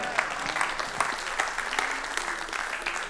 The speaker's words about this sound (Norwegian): Amen? Ja, du kan gi Gud en applaus for det.